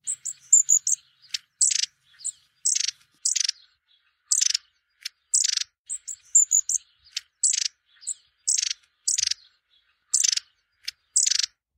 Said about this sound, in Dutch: Achter deze geluidsopnames schuilen mooie verhalen en daarom heb ik met Henk afgesproken op het Veluwse landgoed Staverde om te luisteren naar zijn verhaal achter het geluid van de staartmees.